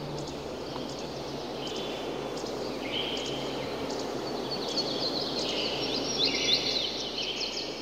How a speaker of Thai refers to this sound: คือเสียงของนกงเสียงของป่า เสียงของใบไม้ เสียงของน้ำที่มันไหล